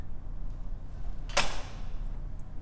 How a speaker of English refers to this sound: The door closes with a thud and a click behind your partner.